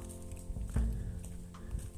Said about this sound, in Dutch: Ik loop in de Soesterduin op een warme zomerdag. Het is fantastisch weer. hoort mijn voetstappen waarschijnlijk op de achtergrond.